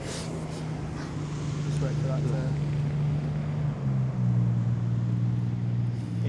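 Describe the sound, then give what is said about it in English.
A boat motor drones past, a steady low hum that shifts downward in pitch partway through, with wind noise and faint talk underneath. “interesting a boats just come past.”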